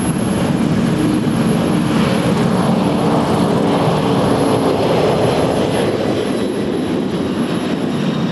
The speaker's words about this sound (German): Das ist nicht irgendein Flugzeug, sondern die Präsidentenmaschine Air Force One. Damit verlässt Donald Trump Washington kurz vor der Amtseinführung seines Nachfolgers.